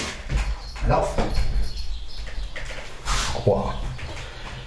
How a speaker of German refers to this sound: Das ist ein Hund, ey.